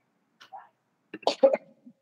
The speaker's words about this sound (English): pardon my cough, y'all. My allergies are very bad.